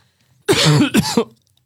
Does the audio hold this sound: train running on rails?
no